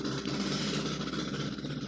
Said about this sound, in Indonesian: motor nih